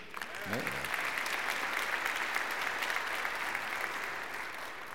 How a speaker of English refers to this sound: Listen, can we give our scout a hand for that reading?